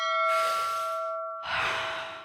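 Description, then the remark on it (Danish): A deep breath drawn in slowly and then let out in a long, airy exhale, while a steady bell-like ringing tone hums underneath. “Ja, skal vi lige starte med en, en god ja, vejrtrækning igen så?”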